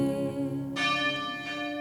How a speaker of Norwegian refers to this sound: 16.07. i 2016 ringer igjen kirkeklokkene over den lille bygda.